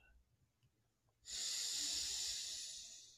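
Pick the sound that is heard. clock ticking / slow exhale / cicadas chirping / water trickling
slow exhale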